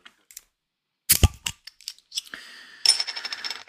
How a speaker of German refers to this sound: Und äh, ich öffne mal dieses Wintersternbier.